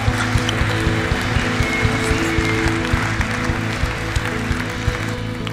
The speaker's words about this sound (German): Gebt ihm einen richtig großen Applaus, hey, come on.